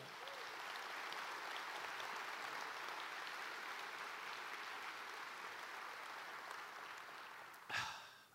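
A church audience claps for the Lord steadily for several seconds, a dense, sustained wash of applause that holds level, then ends with a brief louder burst near the end.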